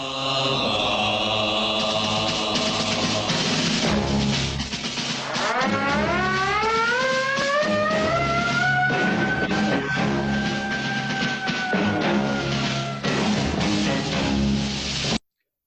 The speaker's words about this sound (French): C'est la, sirène, euh, c'est un appel au décollage. Il faut partir, euh, se mettre en action, partir sur le champ.